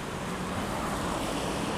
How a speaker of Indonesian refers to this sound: kayak sekarang nih gue lagi di motor habis neduh habis hujan